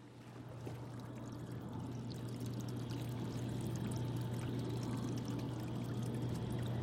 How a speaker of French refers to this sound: Nous sommes dans la salle des aquariums de l'université d'Erlangen, nürnberg à Erlangen, en Allemagne. Le ronronnement des pompes remplit la pièce.